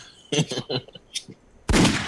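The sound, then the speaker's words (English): A few short, punchy vocal-like bursts lead into a sudden, loud gunshot sound effect: one sharp, full-bodied blast that rings on to the end. “Where's my gunshots?”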